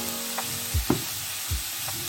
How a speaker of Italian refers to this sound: adesso è il momento di aggiungere il prezzemolo precedentemente tritato friggere sempre per qualche minuto a fiamma moderata.